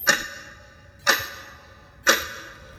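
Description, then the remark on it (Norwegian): A large, wall-mounted, beautifully carved clock, hanging on a narrow wall between two large windows, ticks three times, evenly spaced about a second apart, each tick crisp with a short ringing decay, and nothing else heard. “En eh, stor, veggmontert og nydelig utskåret klokke”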